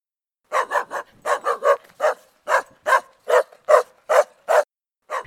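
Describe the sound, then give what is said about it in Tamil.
A Rajapalayam Kombai dog barks repeatedly in a quick, steady series of about thirteen sharp, loud barks, with short pauses between them and no voices. “ராஜபாளையத்து Kombai கிளம்பிவிட்டது”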